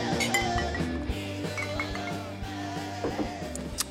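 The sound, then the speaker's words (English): Several quick, bright clinks of drinking glasses tapped together in a toast ring out over a steady low background hum, spaced irregularly across a few seconds. “well, cheers. Cheers. Once again.”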